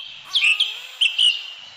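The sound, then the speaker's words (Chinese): Birds in a forest chirp in short bright bursts, two clusters of high tweets about half a second apart over a faint steady background hiss. “这是森林的声音”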